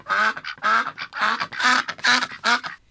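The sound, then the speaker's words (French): Ducks quack loudly, about six harsh nasal calls in a quick, steady series with brief gaps between them, with no talking. “Saint Pierre fait entrer les trois femmes au paradis et il y a des canards vraiment partout.”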